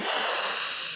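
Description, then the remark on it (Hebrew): A single loud, drawn-out sniff, made by a woman imitating a man in prison who sniffed her perfume, a breathy hissing inhale lasting about a second, with no talking. “לא יודעת אם אה, שומעים את הסנפה שנתתי עכשיו, אבל הסניף אותי, ואמר לי, יואו, כמה זמן לא אירחתי אישה.”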